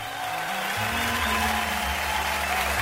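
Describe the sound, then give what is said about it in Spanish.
A steady, dense wash of clapping from a crowd welcoming a birthday guest, fairly loud and continuous for about three seconds, with a low humming tone shifting underneath. “Y ahora vamos a recibir con un caluroso aplauso al cumpleañero de hoy, al dueño de la radio.”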